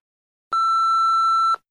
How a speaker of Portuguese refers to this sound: só lembrando é que eu espero vocês. que eu não tenha que ficar bipando o nome, tá? Porque vocês vão moscar falando o nome